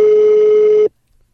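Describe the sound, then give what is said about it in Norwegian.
A single steady telephone ringing tone, the ringback heard while a call connects, holds at one pitch for almost a second and cuts off abruptly into silence. “Det er ringelyd.”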